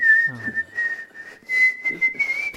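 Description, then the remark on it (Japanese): A steady, clear human whistle in a song holds a sustained high note almost without a break, rising slightly in pitch toward the end, with soft breathy and background sounds underneath. “口笛ですね口笛ですねこれはなるほどねこう夕暮れに染まる海を眺めながらこう口笛なるほどシチュエーション込みで”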